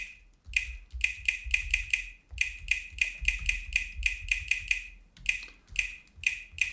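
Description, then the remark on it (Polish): Someone types the password for their network on a laptop's classic keyboard: quick bursts of crisp, high keystroke ticks with short pauses between runs, steady and fairly soft, with no talking. “No i wpisujemy hasło do naszej sieci. Oczywiście klawiatura klasyczna, więc nie powinno być problemu.”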